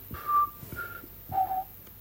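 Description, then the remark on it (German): A person whistles an imitation of a bird call: three clear, high whistled notes, the first and last drawn out and the middle one shorter, with brief pauses between them. “Auch also die Vögel sind anders.”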